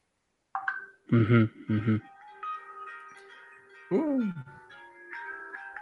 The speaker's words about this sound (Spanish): Esa es la alarma de responsabilidad